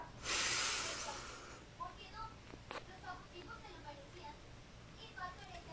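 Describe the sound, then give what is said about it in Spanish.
A single deep, airy diaphragmatic-breathing inhale, loud, lasting about a second near the start, followed by quiet with faint soft tones in the background. “Si acabaste de tener una discusión con tu pareja, con tu hijo o con alguien en la calle, es el momento de practicar la respiración diafragmática. Vamos a, vamos a hacerlo. Inhala.”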